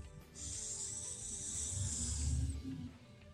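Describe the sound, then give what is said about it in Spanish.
A slow, steady breath drawn in through the nose during a guided breathing exercise on a live program, a soft airy hiss lasting about two seconds with a low rumble beneath it, no talking. “Inhalamos lentamente por la nariz.”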